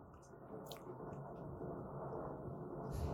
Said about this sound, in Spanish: Ah, eso que se acaba de escuchar que parece como si estuvieran tirando cosas son truenos.